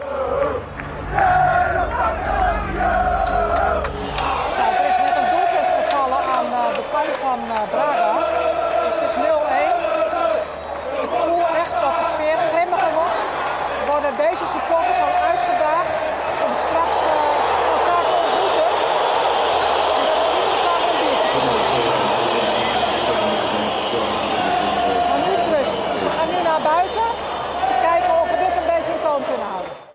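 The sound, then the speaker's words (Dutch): Football supporters shout and chant together in the stands, a loud, continuous roar of many voices with rising and falling yells that never lets up for the whole stretch. “Maar de sfeer wordt grimmiger. Even een fragmentje laten horen.”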